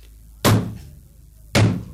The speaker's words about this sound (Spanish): Allí estoy hace tres días dándole a aquella puerta y, llamando y, y, no me abren. Qué raro. Pues, ¿cómo es que llamas? ¿Yo? Pues yo llamo así.